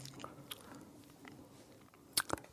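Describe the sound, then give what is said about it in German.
A glass of Kölsch beer is set down on a table near the end, giving a sharp clink with a short ring and a softer knock right after. “Ich versuchte nur, das Kölsch äh, geräuschlos auf den Tisch äh, zu stellen.”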